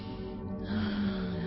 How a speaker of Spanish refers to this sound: Así que rico, una respiración diafragmática. Estas respiraciones son por la nariz, por las fosas nasales solamente.